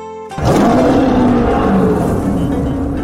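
A big tiger in a forest roars once, loud, deep and gravelly, bursting in after a split second of quiet and holding steady, slightly wavering, for nearly three seconds. No one speaks.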